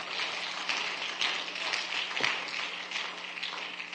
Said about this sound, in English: Could you give him a hand clap of praise?